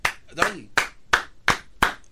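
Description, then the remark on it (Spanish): Hand clapping: six sharp, bright claps in a steady rhythm, about one every third of a second, with a brief voiced sound overlapping the second clap. “¿Por qué aplaudes, estás aplaudiendo”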